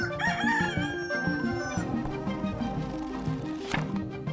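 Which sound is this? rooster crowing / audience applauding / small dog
rooster crowing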